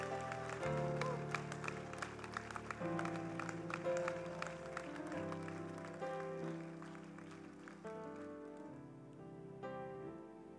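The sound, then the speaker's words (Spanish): An audience applauds the Almighty steadily for about ten seconds, a loud, dense patter of many hands clapping over sustained keyboard chords that shift beneath it, tapering slightly toward the end. “Dale un aplauso al Todopoderoso.”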